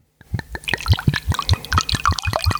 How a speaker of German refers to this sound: Ich muss mal eben hier den äh, Wein näher ranholen, dass ihr ein Einschenkgeräusch auch immer pappt, wie immer.